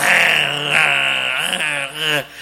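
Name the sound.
voice imitating loud snoring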